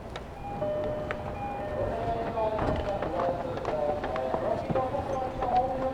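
A rapid-service Tokyo Metro subway train running at speed toward Nishifunabashi on the Iidabashi to Nishi-Funabashi route: a steady, loud rumble with a whining motor tone that rises and falls, and repeated clacks as the wheels pass over rail joints.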